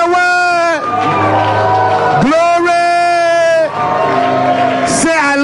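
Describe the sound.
An audience cheers and shouts loudly, with long sustained whoops and yells rising in overlapping bursts, a dense wall of excited voices with brief dips between surges.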